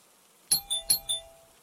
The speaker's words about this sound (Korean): 그리고 동생이 쓰러진 셋째 날 저녁 엄마랑 동생 그리고 초등학교에서 돌아온 저까지 세 명이 집에 있었는데 누군가 초인종을 울렸습니다.